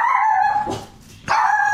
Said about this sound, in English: you're going to hear the aggravating sounds of a small dog barking